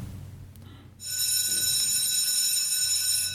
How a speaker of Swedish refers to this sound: Oh, det ringde visst ut. Dags att gå på rast.